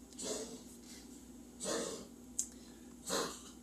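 A dog coughs three times in a steady rhythm, each harsh, breathy hack about a second and a half apart, moderately loud, with a short click between the last two.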